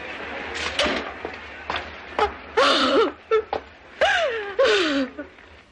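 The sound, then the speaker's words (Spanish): A few sharp slaps across a face crack out between breathy gasps and rising, wailing cries, with the vocal sounds dominating and the smacks brief and abrupt. “La bofetada lanzada por Johnny cruzó la cara de Hilda.”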